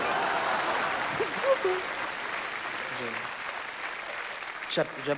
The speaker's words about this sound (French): 16 millions de spectateurs dans le monde entier, un Oscar du meilleur acteur, je crois que rien que pour ça, bah, on peut vous applaudir.